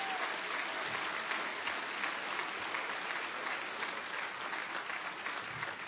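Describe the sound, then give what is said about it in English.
Steady, sustained applause from an audience for a children's morning performance fills the whole stretch, a dense wash of many hands clapping at once with no break, fairly loud and even throughout. “I think we should hear it one more time for these great kiddos and their performance this morning.”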